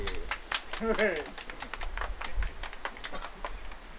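A few people clap to welcome a guest at the Kali Oyo river in Gunung Kidul, in quick, uneven bursts of sharp slaps for about four seconds, with a short vocal sound rising briefly over the clapping near the start.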